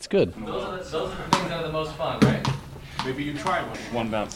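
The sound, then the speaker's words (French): A ball bounces a few times between two bins in a game of bin ball, with sharp, hollow knocks, each one short and distinct against steady talking. “Un rebond entre les deux poubelles, c'est ça Ok.”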